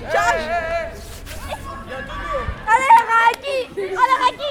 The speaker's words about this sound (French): Les cris des élèves qui jouent au foot dans la cour.